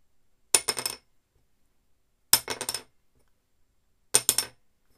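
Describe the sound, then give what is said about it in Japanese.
An old violin soundpost, a small wooden dowel, dropped from about 7 cm above onto a wooden workbench three times, each drop a sharp knock followed by a few quick bouncing clatters, clear with silence between. “えー、机の上に作業台、木があるんですけど、えー、そこの7センチぐらい上からストンって落としてみます。”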